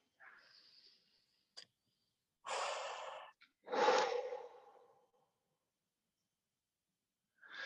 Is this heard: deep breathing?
yes